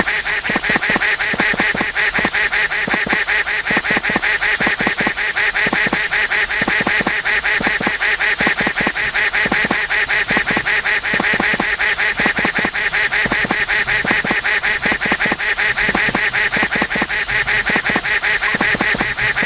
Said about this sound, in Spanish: Cuando haga más agudo es que está el pato mojándose. ¿Ok? avancen poquito poquito, traten de tener el pato siempre en el centro de sus audífonos, también un poquito,